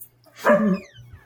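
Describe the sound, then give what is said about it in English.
A dog at home lets out a single loud, excited bark because people are home, rising sharply and fading within about half a second, with only a faint low hum behind it and no talking. “That's my dog, everyone.”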